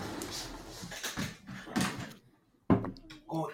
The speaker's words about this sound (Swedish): Nu knackar det. Ja, häng kvar lite.